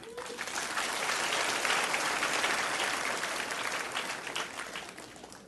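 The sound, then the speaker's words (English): A room full of people claps steadily for several seconds to give the Lord a hand, a dense, sustained wave of applause that swells early and slowly tapers off toward the end. “Can we just give the Lord a hand?”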